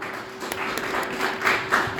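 An audience at a school event applauds a performer on stage: many hands clap in a dense, steady crackle with a few sharper bursts, filling the whole two seconds with no talking over it.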